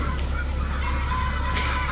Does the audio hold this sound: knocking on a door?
no